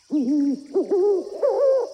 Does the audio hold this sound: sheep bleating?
no